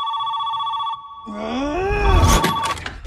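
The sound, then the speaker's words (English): A telephone rings early in the morning at the Byers' house in a TV show scene, with a steady electronic tone for about a second, then cuts off and is followed by a drawn-out, sliding groan-like voice and some rustling noise. “Uh, the phone is ringing,”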